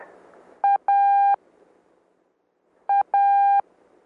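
Morse code tones spelling the letter A twice, sent with the spacing used between letters: a short beep then a long one, a pause, and the same short-long pair again. Clear, steady, moderately loud, with faint background hiss.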